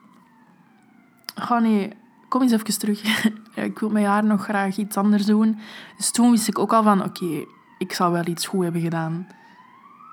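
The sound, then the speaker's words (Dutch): An emergency vehicle siren wails faintly as it passes outside, its rising and falling tone running beneath a person talking and laughing. “Ehm, sorry voor de sirene.”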